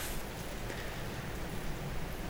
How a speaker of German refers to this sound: Und es windet und regnet und irgendwie.